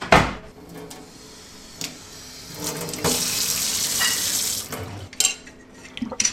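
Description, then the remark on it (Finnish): Cold tap water gushes in a steady hiss for a couple of seconds as a final water sample is taken from a bottle, framed by small clinks and knocks of lab glassware being handled. No one speaks. “Noin sitten kylmää vettä sitten vielä viimeinen näyte pullosta.”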